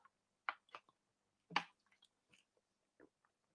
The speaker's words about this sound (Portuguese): Mas já falamos do exercício de agradecer, de beber água. É uma besteira, mas beber água faz você parar um segundo, por exemplo, agora.